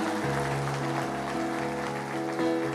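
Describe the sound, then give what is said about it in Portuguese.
An audience applauds Jesus Christ in a steady, dense wash of clapping, layered over sustained keyboard chords that shift every half second or so. No voices stand out. “Dê uma salva de palmas a Jesus Cristo.”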